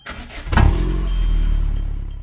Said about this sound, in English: While mini explosions cause your car engine to start.